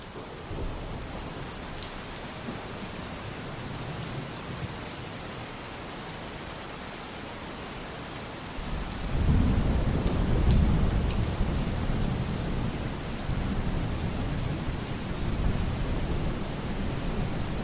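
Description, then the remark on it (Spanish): Steady rain hisses throughout, and about halfway through a deep, rolling rumble of thunder swells beneath it and lingers. No one speaks. “Elías rezó en este monte, el monte Carmelo, y llovió, y aquella terrible sequía se acabó.”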